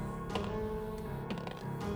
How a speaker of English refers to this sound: Roll that. Okay. Roll that percentage dice.